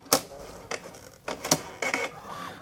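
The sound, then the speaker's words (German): A small printer in an election kit at a polling station prints out the election results, giving several sharp mechanical bursts of printing separated by brief pauses, with a faint motor whir between them. “Und zur Sicherheit wird dieses Ergebnis vom Wahlkoffer dann auch gleich nochmal ausgedruckt, damit man es eben auch in Papierform in der Hand hat.”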